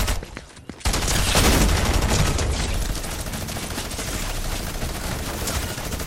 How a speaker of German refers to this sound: Bro, es wird wieder mit Minigun auf mich gesprayt.